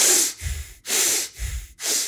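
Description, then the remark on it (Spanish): Rapid, forceful breathing through the nose, a Wim Hof-style hyperventilation done as an activation protocol before entering the gym: sharp hissing inhales alternating with lower, rougher exhales in a quick steady rhythm, about two and a half cycles with no talking. “Y son superventilaciones al estilo Wim Hof, pero mucho menos. Son por la nariz.”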